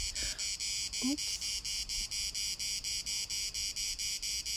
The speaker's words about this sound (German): Ja, also für alle zu Hause gebliebenen, bisschen Entspannung. Grillen, Zirpen in der freien Natur.